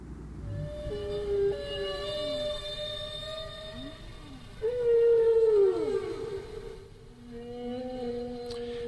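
A humpback-like whale song phrase of long, moaning tones, repeated; the second time it grows louder and yodels, its pitch breaking and sliding up and down before settling into steady hums.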